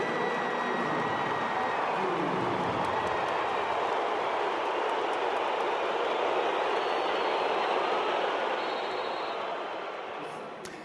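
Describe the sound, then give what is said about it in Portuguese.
A stadium crowd at a Portugal national team home match whistles at Otávio, a Portugal and FC Porto player, as he comes on: a dense, continuous roar of whistling and noise with shrill high tones, steady and loud throughout before easing slightly at the end. “É este momento a entrada de Otávio, também de Diogo Jota e são audíveis os assobios ao jogador da Seleção Nacional e do Futebol Clube do Porto.”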